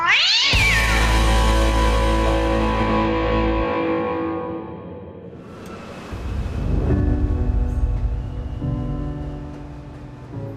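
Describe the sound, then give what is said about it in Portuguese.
A cat lets out two long, drawn-out meows, loud and slightly distorted, with a brief lull between them and no talking. “Ai, meu gatinho aqui.”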